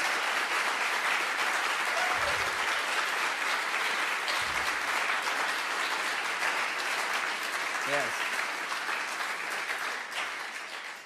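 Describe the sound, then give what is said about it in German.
A church audience applauds its volunteers steadily and loudly for about eleven seconds, a dense wash of many hands clapping, with a few brief shouts and cheers rising out of it before it begins to taper. “Lass uns einmal ausrasten und all diesen wunderbaren Menschen einen Applaus geben.”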